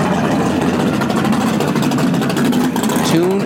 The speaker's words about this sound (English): We could we couldn't hear you because that, that muscle car was going.